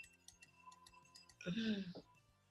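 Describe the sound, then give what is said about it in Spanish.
A pen taps a drinking glass in a quick series of light clinks, leaving a faint ringing tone, before a voice briefly cuts in and the taps fade. “Mira, mucho deberías hacerlo mejor a tu vaso así.”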